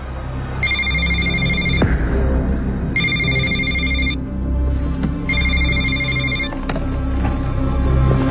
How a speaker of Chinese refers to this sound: 但电话铃不停的响起。无奈之下，他把电话设成了占线，但对方又把电话打到了他同事那边。